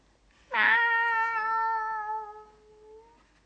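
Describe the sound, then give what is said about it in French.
A single long, drawn-out cat meow, loud, sliding slightly downward in pitch as it fades over about two and a half seconds, with no voices around it. “C'est juste un chat.”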